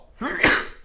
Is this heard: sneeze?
yes